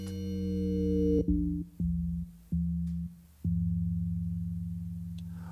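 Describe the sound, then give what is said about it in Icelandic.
Early electronic tones from the piece Fýbur, made at the EMS studio in Stockholm in 1971: steady, buzzy synthetic drones with strong harmonics, starting as a bright held tone, then cutting into a series of low hums separated by abrupt breaks, slowly fading. “Já, sko, hann fekk, uh, eh, Fýpur, hann fekk, skal ég segja þér, tíma í EMS-stúdíónu í Stokkólmi þarna 1971”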